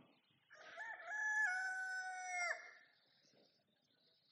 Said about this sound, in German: Im gleichen Augenblick, noch während er das sagte, krähte ein Hahn.